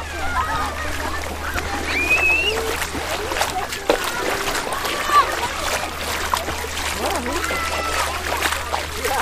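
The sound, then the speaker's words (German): Steady sloshing and splashing as someone wades through shallow water at a crowded waterhole, irregular splashes over a constant low hum, with people's voices murmuring in the background. “genau, wir machen, wir machen Wellen.”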